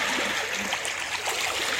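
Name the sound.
flowing stream water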